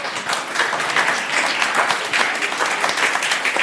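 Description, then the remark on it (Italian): An applause sound effect played on a radio show after Christmas greetings: a burst of steady applause, dense overlapping claps from a crowd filling the whole clip at an even, fairly loud level, with no voices standing out. “Oh yeah, un grande applausometro.”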